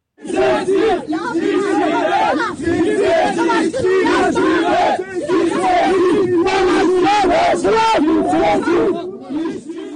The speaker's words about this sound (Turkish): Bu evrende trend yol işçileri zamanın ruhundan süzülerek gözaltına alınırken şöyle slogan atmışlar.